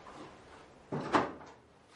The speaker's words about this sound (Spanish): Santi entra en la casa con el plato y cierra la puerta.